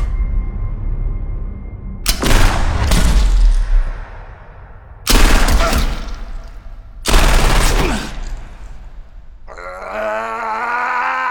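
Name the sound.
gunfire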